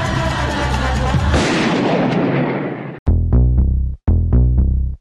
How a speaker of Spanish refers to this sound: Escuchar los disparos